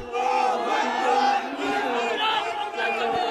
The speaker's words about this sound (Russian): Вот они идут, идут по улицам, идут, идут, идут. Демонстрация, демонстрация. Кричат что-то, ну, что-то что миролюбивое, безусловно. Кричат, скандируют, что-то такое.